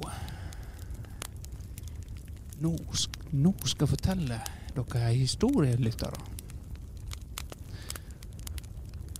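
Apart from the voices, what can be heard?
campfire crackling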